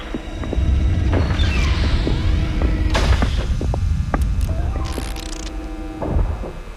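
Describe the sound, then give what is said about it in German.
A steady, soft whirring hum of a dust-removal cabin drones throughout, with scattered faint clicks and crackles and a few thin rising and falling tones drifting over it. “Am Anfang hörst du nur ein zartes Surren und bildest dir ein, eine Art Knistern zu spüren.”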